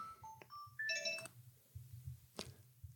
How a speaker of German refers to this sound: Jetzt klingelt das Telefon, das macht gar nichts. Ich gehe kurz ran.